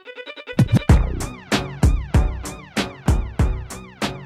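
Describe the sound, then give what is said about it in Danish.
A hip-hop beat with punchy, booming kicks and snappy hits landing in a steady rhythm, opening with a short stuttering synth intro before the drums drop in. No one speaks. “Beatet ja. lyder sådan her.”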